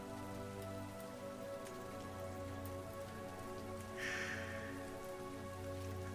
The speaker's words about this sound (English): Oh air is so fresh and cool, and we immediately feel these cold raindrops on our faces.